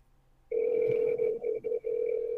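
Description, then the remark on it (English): A steady electronic phone tone starts abruptly and holds, with a few brief dropouts, sounding like a call ringing tone played through a phone speaker as a call is placed live with the phone held up, aiming to leave a voicemail. No one speaks. “I know he see these phone calls too.”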